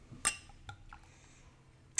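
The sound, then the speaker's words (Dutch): Champagne being poured into glasses: a few sharp, ringing glass clinks with a soft, faint trickle of liquid between them. There is no talking. “We schenken het in.”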